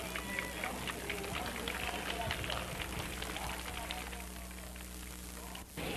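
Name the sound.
audience applause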